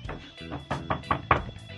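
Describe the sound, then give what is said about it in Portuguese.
A quick series of about six knocks on a door, evenly spaced and moderately loud, growing slightly stronger toward the end, with no one speaking. “ah, bateram na porta aqui,”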